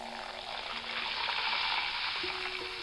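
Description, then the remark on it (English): A steady, dense hiss of fizzing bubbles from a freshly opened bottle of drink whose crystal clear liquid turns rich umber, almost black, with gold bubbles. It crackles without pause for a few seconds with no voices. “And the crystal clear liquid in the bottle started to change into a rich umber almost black, with these beautiful gold bubbles and that incredible sound.”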